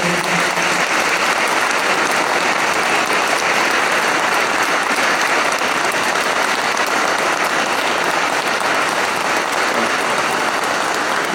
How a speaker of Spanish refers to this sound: La felicitamos con un fuerte aplauso.